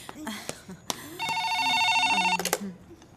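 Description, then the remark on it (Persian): A telephone rings with a bright, steady electronic trill lasting just over a second, fairly loud, with brief voices and clicks before and after it. “خیلی خب تا من تلفن جواب میدم بپر ببینم چیکار میکنی”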